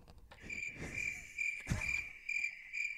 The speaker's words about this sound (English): I was actually hoping you would play the cricket noise after you said mutt.